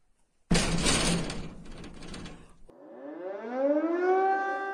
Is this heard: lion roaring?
no